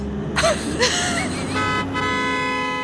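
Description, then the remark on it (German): A bus horn honks in a few short, loud blasts, then holds a long, blaring tone that runs to the end over a low traffic rumble. “Wo ist der Bus?”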